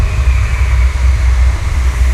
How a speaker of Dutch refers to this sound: Ik hoor nu de trein over me heen gaan.